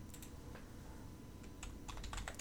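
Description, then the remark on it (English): Quick, uneven computer keyboard clicks tapping away, with a brief pause before a faster flurry of keystrokes near the end; no one speaks. “I'm typing. I can't talk while I'm typing.”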